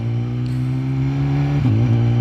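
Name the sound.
motorcycle engine revving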